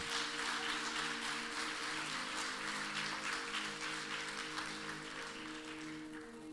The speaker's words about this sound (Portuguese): Alguém pode aplaudir ao Senhor bem forte?